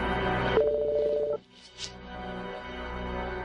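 A mobile phone rings with a single steady electronic tone lasting under a second over a rumbling background, then a few soft rustles follow in near quiet.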